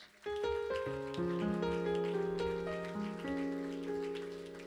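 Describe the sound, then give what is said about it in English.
An audience claps their hands as a hand clap of praise to the Lord in a dense, continuous patter, mixed with sustained organ-like chords that shift in pitch, holding steady before gradually fading toward the end. “Could we give the Lord a hand clap of praise?”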